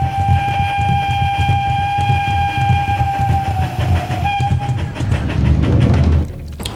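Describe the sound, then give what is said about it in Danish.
A steam train at Repark, an animal park near Ebeltoft on Djursland, Denmark, whistles with a long, steady tone over rhythmic low chuffing, then a loud hissing burst of steam swells up and fades out near the end. No one speaks. “Velkommen til Repark, til dyrenes verden, til safari på savannen og med damptog på prærien.”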